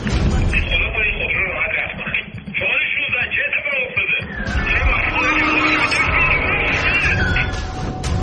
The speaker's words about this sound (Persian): این صدای ویدیویی مربوط به یک کورس خیابانی که در نهایت منجر به تصادف و مرگ میشه